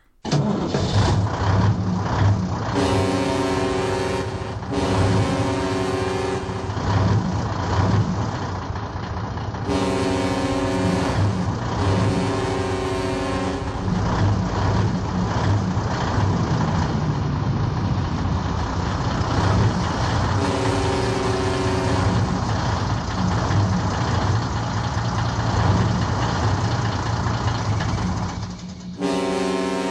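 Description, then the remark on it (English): Diesel's first WWF entrance theme, from a cassette, plays: loud, driving rock-style music with a truck engine starting and revving under heavy guitar-like tones and steady rhythmic hits, with no voices. “And Diesel's first theme can be found on the very rare cassette tape …”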